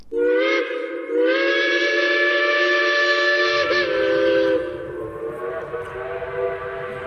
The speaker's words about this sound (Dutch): Het adres aan de single van het confectieatelier De Vries is vlakbij het Centraal Station. En daar kon je het snerpende geluid van de stoomtreinen horen. En de zwarte roetwolken stegen daarop.